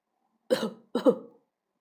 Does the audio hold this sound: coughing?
yes